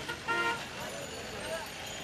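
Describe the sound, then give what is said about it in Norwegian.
A short car horn toots amid the steady hum of busy street traffic in narrow streets crowded with fruit carts, bicycles, cars, horse carts and pedestrians, in heat over 30 degrees, followed by a fainter second beep, with indistinct crowd voices in the background. “Temperaturen har stiget til over 30 grader det er trangt om plassen når fruktvogner, sykler, biler, hestevogner og gående skal gjennom de smale gatene.”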